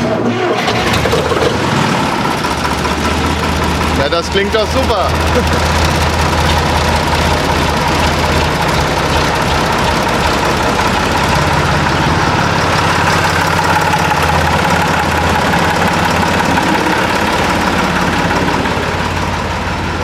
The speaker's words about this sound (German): Ja, ich möchte den Trecker jetzt wieder mal warm laufen lassen. War der länger aus? Ja, der war zwei Monate aus oder länger. Und dann sehe ich, ob der auch noch läuft. Na, dann probieren wir mal. Wie alt ist der Traktor? Baujahr 73.